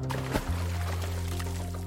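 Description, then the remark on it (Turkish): A single plop of a stone thrown into lake water, a short splashy burst that sinks into a low, lingering watery rumble with faint trickling afterward. “Ve bu levhanın ön kısmına bir taş atalım.”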